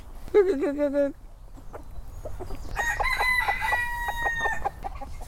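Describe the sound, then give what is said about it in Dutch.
A rooster crows loudly, a single harmonic call, then chickens cluck and squawk in a busy, overlapping burst, with faint background noise underneath. “Zo liefdevol hij leeft met zijn kippen en ratten en zo zorgzaam hij omgaat met de natuur”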